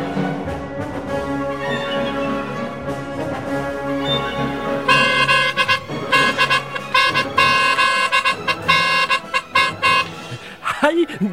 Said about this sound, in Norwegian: Du skjønner, jeg holder på å øve meg til 17. mai-toget. Og så Derfor så har jeg litt sånn der eh, marsjmusikk eh, i bakgrunnen her. Og så øver jeg litt med blåsa mi. Trompeten min